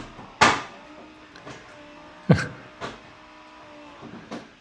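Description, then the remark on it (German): A coffee machine runs its cleaning cycle: a low, steady mechanical hum broken by two sharp clunks and a few softer knocks and hisses at irregular intervals, with no one speaking. “Die Kaffeemaschine hat äh, ihre, ihr Reinigungsprogramm gestartet.”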